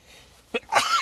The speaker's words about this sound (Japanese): あくしゃみしちゃった